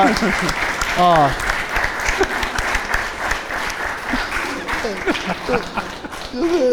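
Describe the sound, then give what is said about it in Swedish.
Steady applause from a crowd fills the whole stretch, dense, with a few voices calling out and chatter mixed in underneath. “Fan applåder.”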